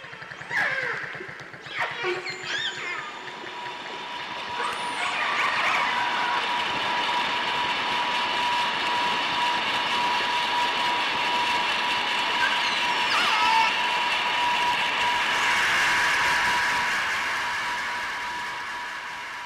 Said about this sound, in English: Just listen to this audio of how noise from a passing boat totally drowns out dolphin communication.